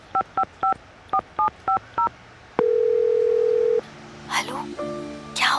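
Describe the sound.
A phone number is dialed with seven quick keypad beeps in an even rhythm, followed by a long steady ringing tone, then muffled voices and brief noises near the end.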